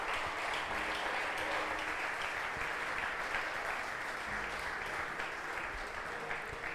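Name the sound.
audience applause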